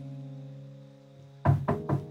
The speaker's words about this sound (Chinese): 男子轻轻的叩门